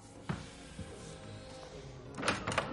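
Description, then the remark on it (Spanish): A person gets up from a computer desk and opens the door to leave the room: a sharp knock-like thud, a softer bump, then a rattling burst of latch and hinge noise near the end. Moderately loud, with no voices. “Se levanta y se acerca a la puerta.”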